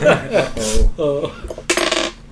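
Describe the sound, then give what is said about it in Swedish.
Dice rolled onto a table, tumbling in a quick burst of clattering clicks and bright, ringing knocks before settling. Fairly loud, with no voices over it. “Ja, jag tänkte jag skulle... Ja. Slå ett slag.”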